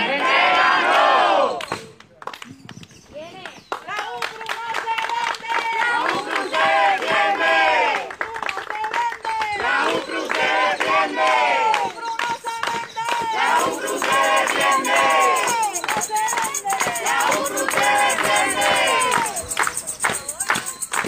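A large crowd of protesters in Puerto Rico, defending the public university, chants the slogan 'la universidad no se vende, la universidad se defiende' in loud, rhythmic unison, phrases repeating in regular bursts with brief pauses between, energetic like a street protest.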